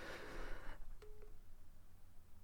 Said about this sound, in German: Fuck, ich werde angerufen. Ja, ich merk's gerade.